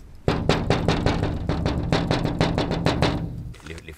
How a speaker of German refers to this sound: Ein grauhaariger Mann klopft gegen eine der Fensterscheiben.